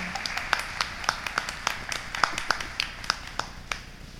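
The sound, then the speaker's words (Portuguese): An audience claps for the winner of a weekly draw to take a statue of Our Lady home, in a steady burst, sharp individual claps popping out at an uneven rhythm over a softer wash of hands, moderately loud and with no voices over it. “Uma de palmas para ele.”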